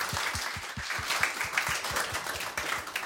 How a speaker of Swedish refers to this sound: Stor applåd också. Välkommen tillbaks